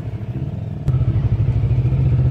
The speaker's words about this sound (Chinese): 我们就继续再往下查，往时间往后推，直到在二十分左右的时间，这摩托车才出现，我们就感到这个很奇怪。